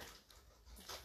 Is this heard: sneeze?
no